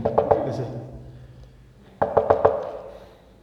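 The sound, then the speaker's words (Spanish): Two bursts of quick, insistent knocking, each about four or five rapid raps on a hard surface, separated by a short pause. The knocks are fairly loud, imitating someone impatiently pounding on a door. “Espero que nadie toque así, hermanos, porque cuando tocan así, en la puerta así como que uno desespera, ¿no?”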